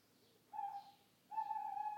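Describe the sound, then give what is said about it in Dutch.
Two sustained owl hoots, each a steady, mournful tone with faint harmonics, separated by a short pause, apparently coming from a bank building, heard clearly against a quiet background. “Misschien roept hij een andere uil.”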